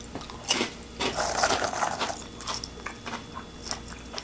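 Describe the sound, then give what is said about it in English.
Crisp crunching of Lay's Poppables sea salt and vinegar potato chips being bitten and chewed, a burst of sharp crackles followed by a steady run of smaller crunches, with no talking. “Extremely crispy. I was not expecting these to be so crisp.”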